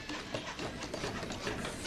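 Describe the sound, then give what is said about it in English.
A dense, continuous clatter of 64 hands building a house for the homeless, with many tools and hammering-like knocks overlapping into a steady, busy mechanical din, and no voices. “64 hands building a house for the homeless.”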